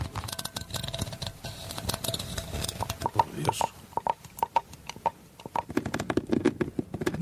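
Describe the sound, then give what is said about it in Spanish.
A Korean ASMR creator's very pretty fingernails tap and scratch in quick, uneven bursts of crisp clicks and rasping strokes as she scratches a back and taps with her own nails. The sounds are fairly soft, with a brief exclamation from a voice partway through. “esto lo está haciendo con las uñas, así. rascando la espalda.”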